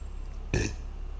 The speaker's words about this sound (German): Das war, glaube ich, der erste Rülpser der Würzmischung, oder?